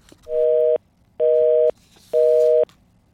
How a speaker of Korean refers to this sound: 아, 속상한 소리네. 뚜뚜뚜. 그쵸? 전화벨이 에, 통화 중 소리, 이 소리입니다.